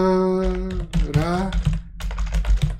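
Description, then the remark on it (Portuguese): Rapid, loud typing on a computer keyboard, a dense run of key clacks, with a sustained tonal hum and some background voice-like sound in the first second. “Eu tô digitando que nem um animal. Caralho, tá fazendo muito barulho.”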